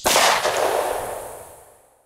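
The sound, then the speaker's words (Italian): A single shot from a blank-firing pistol modified to fire lethal rounds, held with arms outstretched and aimed, cracks out sharply and loudly, then rings away in a long, fading echo. No one speaks. “Stringe il calcio nel pugno, tende le braccia, chiude un occhio per prendere la mira e poi fa fuoco.”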